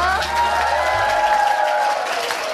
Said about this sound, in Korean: 음, 이렇게 뜨겁게 박수로 맞아주시니까 저는 벌써 힐링이 되는 것 같은데